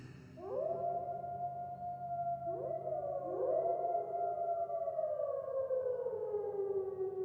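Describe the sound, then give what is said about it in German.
Wolves howling in chorus at night: several long, drawn-out howls start one after another, each sliding up and then holding a steady, mournful pitch that slowly sinks, loud and without any talking. “Die Wölfe? Ja, die Kinder der Nacht. Was für eine Musik sie machen.”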